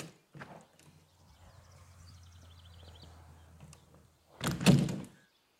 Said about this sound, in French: Je prépare mon cul de poule et maintenant je vais sortir ma crème du frigo.